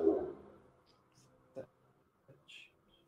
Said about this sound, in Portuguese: Derrubei minha caneta. Tudo bem.